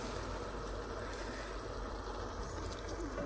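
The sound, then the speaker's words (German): A steady bubbling and hissing of food simmering in a pot, a constant watery burble with faint pops that stays even throughout, with no voices. “Ihr hörtet jetzt hier kochen.”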